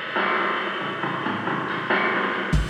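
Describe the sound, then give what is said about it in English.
A whole drum bus run through an old spring chorus echo unit, its hits smeared by a warbling, washy echo and blurring into a dense, steady wall of sound that repeats in even sections, ending with a sudden loud thump. “So that's the whole drum bus going through the chorus echo, what the 555 or whatever it is.”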